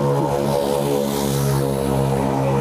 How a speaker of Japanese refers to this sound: なんか前からめっちゃうるさい原付が来てます、ね、横の電車も来てるから、久しぶりにすげえうるさい原付